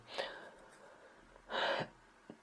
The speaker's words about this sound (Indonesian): ambil napas dulu nih biar nggak ngomel-ngomel terus